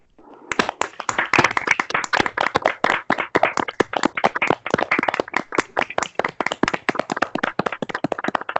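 A round of applause: many hands clapping in a dense, steady patter of sharp claps that begins abruptly and keeps going at an even, fairly loud level for the whole stretch, with no talking.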